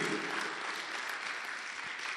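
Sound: audience clapping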